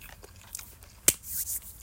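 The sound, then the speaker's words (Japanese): Someone slurps hot noodles that have cooled slightly, once: a sharp click followed by a brief, airy, hissing suck, fairly quiet, with no talking. “熱すぎると、ツーンってするけど、ちょっと冷めてきたんですが、うん。すすれますね。”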